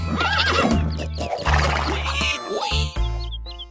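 A horse lets out a loud, quavering whinny, its pitch wavering up and down over a steady low droning background, with brief chirpy sounds near the end.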